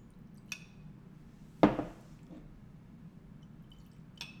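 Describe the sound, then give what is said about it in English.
Whiskey glasses clink bottom to bottom in a toast during a tasting of Puckett's Branch handcrafted rye whiskey: a dull, heavy knock of thick glass bottoms, with a couple of brief, bright ringing taps before and after over a low background hum. “We clank the bottom of our glasses, by the way, not the tops.”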